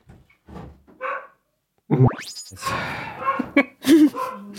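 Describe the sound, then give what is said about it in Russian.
A dog barks several times in quick, uneven bursts, with sharp yelps and a rising whine mixed in, fairly loud, after a few softer sounds at the start. “Ну, у меня в этот момент собака залаяла.”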